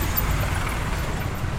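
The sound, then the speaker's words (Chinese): A steady low rumble of buses idling in jammed traffic at a bus stop, all the buses standing still, on a sunny day, with a constant wash of road hiss over it. The drone stays even and unbroken, and no voices are heard. “刚刚在公交车站那里录公交车的声音，但这边就特别，呃，特别堵，就所有公交车都是停着的，然后也没有，好像也没有什么事。”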